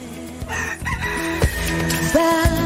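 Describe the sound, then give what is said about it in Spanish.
A rooster crows loudly, its drawn-out harmonic call rising and falling over a busy background of other clucking and squawking fowl, with no one speaking. “Eh, eso es para los que no pueden dormir, para las gallinas no.”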